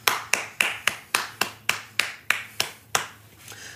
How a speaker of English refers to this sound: So everyone give him a round of applause.